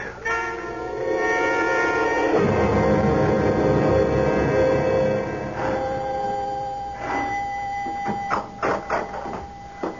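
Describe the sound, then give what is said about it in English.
The front doorbell at Dr. Koenig's home, rung by a police lieutenant, rings loudly and steadily for several seconds, its tone sustained and unbroken, then fades into a few sharp knocks and clatters near the end. “Oh, who rang the bell, Rose?”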